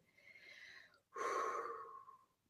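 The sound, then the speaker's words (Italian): Two deep, forceful breaths drawn in through the nose, a softer sniffing inhale followed by a louder, longer, hissing one, with no talking. “Purezza e decisione si ottengono andando oltre la mente, che è paura, annusando l'aria, respirando più forte”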